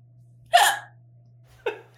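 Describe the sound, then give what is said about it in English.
Two sharp hiccups, the first louder and breathier, the second shorter about a second later, with a faint steady hum underneath and no talking. “I hiccup a lot.”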